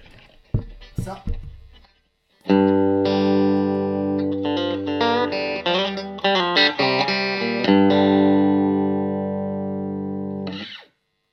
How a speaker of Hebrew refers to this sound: לשתי הגיטרות האלה ישנם שני מיקרופונים, אחד קדמי ואחורי. יש גיטרות אחרות שיש יותר, אבל חלק מהסאונד הטלקסטרי הזה נמצא בתוך ה... אה, בתוך הברידג' פיקאפ הזה, הוא מאוד מאפיין אותה. ולכן רציתי שנשמע את זה.